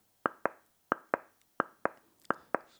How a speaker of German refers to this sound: Das heißt, immer wenn ihr das Themenglas klopfen hört, wird es Zeit für ein neues Thema.